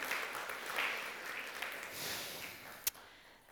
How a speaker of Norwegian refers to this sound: Gi gir han en applaus.